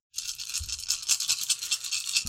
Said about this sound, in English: I'm just enjoying having the physical dice here. Oh, sounds so good.